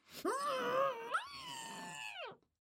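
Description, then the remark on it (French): A muffled, strained moaning from a woman who is tied up and gagged in a corner, her voice stifled, rising and falling in two drawn-out, closed-mouth groans lasting a couple of seconds, fairly loud. “Les enfants se retournent et aperçoivent Madame douce mère saucissonnée et bâillonnée dans un coin.”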